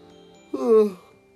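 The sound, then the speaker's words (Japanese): A single short yawn, a voiced, drawn-out sigh that swells and then falls in pitch over about half a second, with quiet background hum before and after. “失礼いたしましたあくびが出てしまいました”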